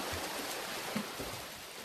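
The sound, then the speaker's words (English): Steady, dense splashing and churning of water as many swimmers, 142 hands in all, stroke through it swimming a triathlon, a continuous rushing wash with no voices. “142 hands swimming a triathlon.”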